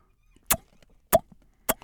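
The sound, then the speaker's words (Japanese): A voice imitates the LINE message notification tone: three short, sharp, popping notes with a brief pitched ring, evenly spaced about half a second apart, alone with no talking. “あの通知音の音真似してるんですよ”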